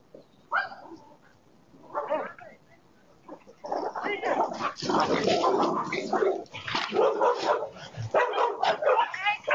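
dogs barking

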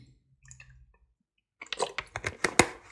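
drinking water

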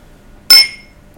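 wine glasses clinking

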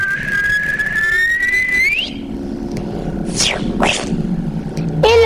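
person whistling

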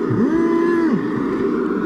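cow mooing

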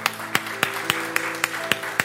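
audience applauding

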